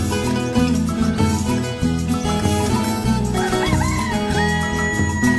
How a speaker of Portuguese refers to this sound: O galo cantou é de manhã.